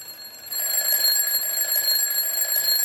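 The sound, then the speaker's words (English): An alarm clock rings continuously with a shrill, steady, high-pitched tone, growing a little louder after the first half-second, with no one speaking over it. “Hey, a uh, clock. It's, it's time for us.”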